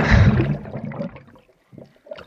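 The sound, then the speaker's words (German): A bubbling water sound effect: a loud gush that fades over about a second, followed after a short pause by a few scattered gurgling bubbles. “Auf Thermalquelle, auf Wellness, auf Blubbern.”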